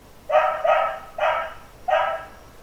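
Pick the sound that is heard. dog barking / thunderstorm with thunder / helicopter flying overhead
dog barking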